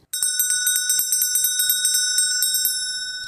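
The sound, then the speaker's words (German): A small bell rings rapidly and continuously to announce the start of Christmas gift-giving, a bright, shimmering jingle repeating about every tenth of a second, fairly loud, with no voices. “Mach jetzt mal einer die Klingel, dass wir das hier offi offiziell äh, einläuten.”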